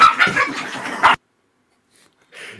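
A dog in an office yelps and whimpers in one fairly loud burst lasting about a second, followed by silence and a brief, softer sound at the very end.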